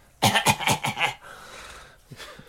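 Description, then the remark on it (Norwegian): A voice imitates a man coughing with his mouth open out over a table full of food: a quick burst of four or five loud, harsh, breathy hacks, followed by a soft exhale and a faint short cough at the end. “Nei, og han hosta på maten vår.”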